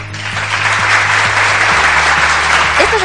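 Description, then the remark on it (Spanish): Dense, steady applause fills the whole stretch, a continuous crackle of many hands clapping at once, loud and unbroken with no pauses, over a low hum. “aplausos, queridos míos, son para vosotros, porque así, casi sin darnos cuenta, pues hemos superado la cifra de los mil suscriptores de Onda Felicidad en Spotify.”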